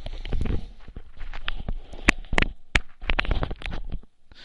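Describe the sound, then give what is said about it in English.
Microphone handling noise after the mic is dropped: a series of irregular knocks, bumps and rustling scrapes, loud, as the mic is fumbled and shifted back into place, with no talking. “Just drop my mic there. That's what the noise is. Trying to get it back in place.”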